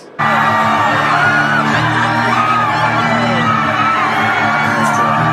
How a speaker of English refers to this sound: The minute that he reached the stage. I mean, phones went up and people were screaming. It was definitely a, a nice surprise for everybody.